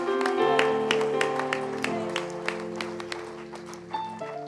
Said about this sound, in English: clap of praise as you're seated in this place.